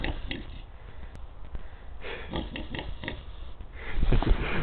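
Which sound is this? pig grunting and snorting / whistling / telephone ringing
pig grunting and snorting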